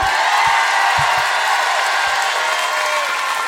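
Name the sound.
concert crowd cheering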